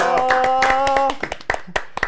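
A short burst of applause welcoming a guest, a few people clapping in quick, uneven rhythm, over a sustained harmonic tone that fades after a second, leaving sparse, scattered claps trailing off.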